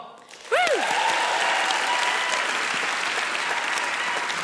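A crowd breaks into sustained, steady applause that starts abruptly after a short rising whoop or cheer, then continues evenly, dense and fairly close, with a few voices faintly mixed in.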